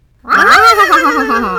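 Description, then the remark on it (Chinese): A voice imitates a horse's whinny: one loud, wavering neigh that rises in pitch, then quavers and slowly falls for over a second, with no other talking. “接着，他们又一起学马叫。”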